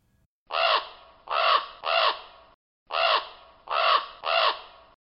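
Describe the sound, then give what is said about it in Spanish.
A crow caws six times in two groups of three, each harsh, raspy call loud, with a short pause between the sets and no other sounds. “En el caso de este último, quizás por su plumaje de color negro, su croar y su dieta de carroña.”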